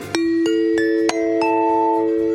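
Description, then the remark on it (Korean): A bright bell-like chime signalling a correct answer plays a quick rising sequence of struck tones, each ringing on and overlapping, ending in a sustained shimmer. No voices, clear. “딩동댕 드린 분께 선크림을 선물로 드립니다.”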